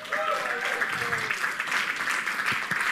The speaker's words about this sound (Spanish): Un aplauso